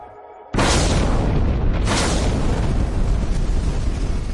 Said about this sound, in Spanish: Se produjo una explosión, no una explosión nuclear, sino térmica. El contenedor de hormigón saltó por los aires, el combustible se dispersó